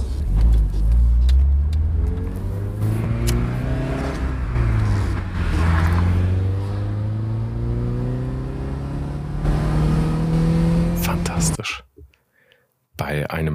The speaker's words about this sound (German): Toll. Also wirklich der Sound, wenn man von Gang zu Gang wechselt.